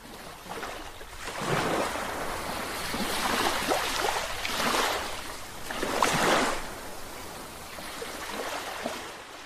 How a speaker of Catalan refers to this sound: Mentre escolteu, passegem per la platja.